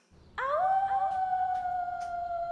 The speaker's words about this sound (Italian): Ehi, l'hai sentito? Sembrava proprio un ululato.